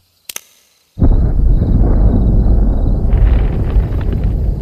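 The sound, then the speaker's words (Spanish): A brief click, then a heavy explosion, set off with a remote detonator deep in a forest, bursts in and rolls on as a loud, deep rumble that shakes the ground and sustains without fading to the end, with no voices present. “En algún lugar en lo profundo del bosque hubo una explosión que sacudió el piso e hizo que varias aves salieran volando.”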